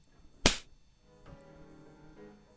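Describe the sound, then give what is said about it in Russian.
A single sharp, loud slap cracks out and dies away fast, followed by a faint sustained tonal ringing in the background. No one speaks. “Одно неверное движение — удар.”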